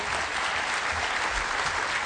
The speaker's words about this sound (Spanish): Un gran aplauso para sus líderes